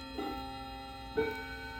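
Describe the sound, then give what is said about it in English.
A clock chimes at four forty-five with two resonant, bell-like tones about a second apart, ringing out clearly over a faint steady hum, with no one talking. “Okay, we gotta wait on the clock.”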